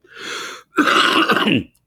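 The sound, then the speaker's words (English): Two harsh, raspy bursts of throat clearing and hacking cough from a person with an underlying condition, a breathy first one followed by a louder, rougher, guttural one, with no talking. “And it's for people like me who's been hacking away through this show, who have an underlying condition.”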